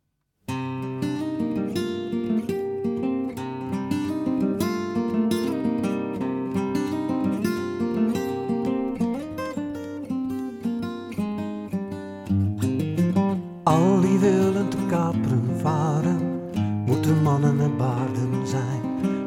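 A home-recorded alternative rendition of a sea shanty, the third of three alternative versions on a CD in the back of the book Mijn jaren als zwam, plays steadily with a full, sustained melodic arrangement. It shifts to a brighter, busier section about two-thirds through, and no one speaks over it.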